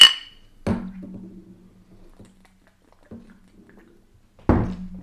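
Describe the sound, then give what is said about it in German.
Beer glasses knock together in a toast: a short bright clink at the start, then three duller, heavier glassy thunks spaced a second or more apart, with no talking. “Prost. Prost.”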